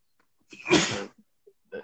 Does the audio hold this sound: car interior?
no